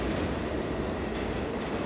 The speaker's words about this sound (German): Also das war einfach irre, diese Zeitkapsel und dieses schummelige Licht und sonst kein weiteres Geräusch, außer ab und zu mal ein Zug, der da durchfuhr.